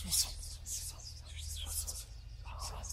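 Several hushed, breathy voices whisper at once in a continuous overlapping murmur, with no clear words, over a steady low hum, heard by someone lying in a tent during sleep paralysis.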